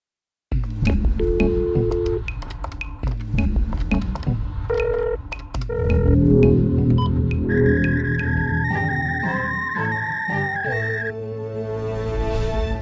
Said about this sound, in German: wir gehen gleich äh, rüber und jetzt äh, spiele ich den äh, Hörerfragen-Jingle ein.